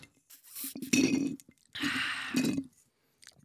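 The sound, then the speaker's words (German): A brief bright clink of glasses in a Christmas toast, followed by two longer bursts of sipping and swallowing as someone drinks, then quiet. “Ach, mein Getränk. Ja, Leute. Prost, ne?”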